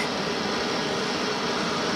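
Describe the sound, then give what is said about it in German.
A gas burner flame roars steadily, a continuous broad hissing rush that holds an even loudness throughout with no voices or breaks, as a cantor uses it to kasher dishes for Passover in a stainless-steel kitchen of a Jewish community in Basel. “Hier ist ein Brenner. Feuer.”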